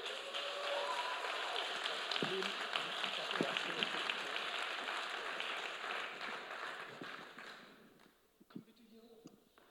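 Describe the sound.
Sustained crowd applause, a dense wash of many hands clapping at a steady level, then fading out near the end with a few scattered claps and brief voices.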